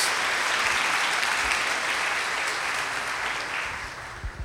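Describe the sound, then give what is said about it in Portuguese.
A church crowd at Igreja Red claps steadily for the church treasurers, a dense, continuous wash of applause that holds at a strong level for several seconds before easing slightly toward the end, with no voices over it. “Gente, uma salva de palmas para os nossos tesoureiros, homens corajosos.”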